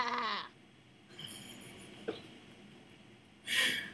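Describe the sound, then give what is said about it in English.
A person imitates a sheep's bleat twice, a wavering nasal cry at the start and another at the end, with quiet breathy sounds in between. “It seems that you're a sheep.”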